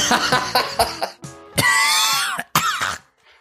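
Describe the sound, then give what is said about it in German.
A run of harsh, raspy coughs and throat clearing, starting with several quick hacks, then two long, strained, wheezy coughing bursts before trailing off. “Da kriegt man ja schon direkt Corona beim Zuhören, ey.”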